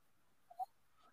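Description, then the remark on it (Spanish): A short, wheezy breath puffs into a microphone, one quick exhale standing out against faint background hiss, with a softer breathy trace trailing after it. “Hay un sonido de, una, respiración, parece.”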